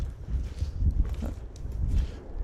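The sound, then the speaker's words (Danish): Steady footsteps crunch through leaf litter as people walk in a forest at Tisvilleje, among bare, leafless trees; a soft rhythmic tread with low rustling underneath and no one speaking. “Og hvor tit befinder du dig i den her skov, hvor vi nu går omkranset af golde træer uden blade, der ligesom råber om hjælp mod himlen, råber om hjælp.”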